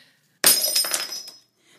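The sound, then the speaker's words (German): Glass suddenly breaks and shatters with a loud crash, followed by about a second of tinkling, ringing fragments scattering before it falls quiet. “Och nee, die ganzen Scherben, die muss ich gleich erstmal wegmachen.”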